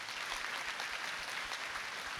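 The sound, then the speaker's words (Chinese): A church audience applauds God together in a steady, dense wash of applause, many hands overlapping into a bright, even rattle that holds at a consistent level throughout with no voices on top. “我们再次给神一个最热烈掌声，好吗？”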